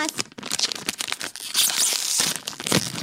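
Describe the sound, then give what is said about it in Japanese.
A bag being opened with busy, bright crinkling and rustling, a run of quick crackles that swells into a steadier, louder stretch of plastic crinkle toward the end. “袋に入ってますね。じゃあ袋開けていきたいと思います。”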